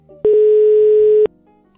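A single loud, steady telephone ringback tone sounds for about one second as someone places a phone call, a flat electronic hum that stops abruptly, leaving quiet background afterward.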